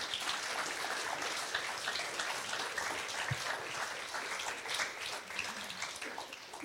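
Sustained applause from an audience, a dense patter of many hands clapping at a steady level for several seconds, with no voices over it.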